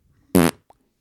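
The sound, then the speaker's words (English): A single loud, buzzy fart noise lasting about a fifth of a second, followed by a faint short blip and then quiet. “How does an altar boy fart before and after church?”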